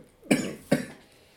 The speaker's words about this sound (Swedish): Jag måste hosta lite.